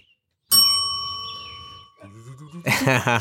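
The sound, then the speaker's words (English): A bright bell strikes once and rings out with a long, shimmering decay, fading over more than a second before voices begin talking over its tail. “The, the bells bring it right back.”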